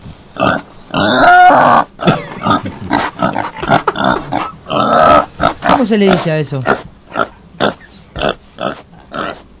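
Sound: pig grunting and oinking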